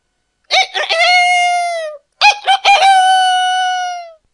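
A rooster crows twice, loud, each call a long drawn-out cock-a-doodle-doo with a choppy start, separated by a brief pause.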